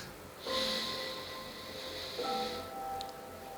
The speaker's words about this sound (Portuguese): Mais uma vez, lembre da respiração. Enche o seu cérebro de ar.